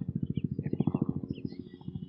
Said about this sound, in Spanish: A ver, va a pasar un helicóptero y como hombre que soy, tengo que voltear a ver.